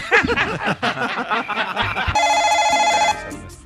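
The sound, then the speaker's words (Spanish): Laughter and chuckling give way to a telephone ringing on the radio show La Luciérnaga: one steady, bright, buzzing ring lasting about a second, loud and clear, then cutting off. “Hombre, y a ver quién llama hoy.”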